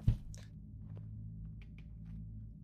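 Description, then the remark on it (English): Dice rolling as people gamble behind a door, a small clattering burst followed by a few light, scattered clicks and taps over a steady low room hum. No one speaks. “Sounds like dice.”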